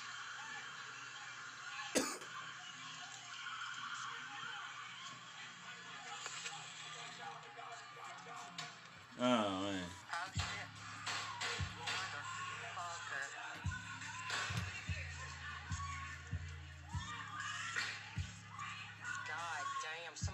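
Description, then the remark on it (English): A series of sharp gunshots pops off at irregular intervals, one early and a cluster later, somewhat muffled as if played through a speaker, with people talking over them. “I'm trying to count the gunshots.”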